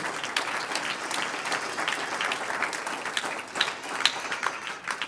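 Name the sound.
audience applause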